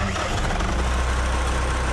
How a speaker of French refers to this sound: 6 où sept tracteurs sont arrivés, ont débarqué. Dans Et eh oui, ils, ont débarqué dans le champ pour empêcher cette rave party.